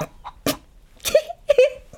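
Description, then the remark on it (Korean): A chicken clucks in a few short, uneven bursts, the last two calls sharper and more pitched, with quiet gaps between them. “합궁에 너무 집중하지 못하도록 주상전하의 신경을 분산시키는 방법에는 닭소리가 딱이지 않습니까?”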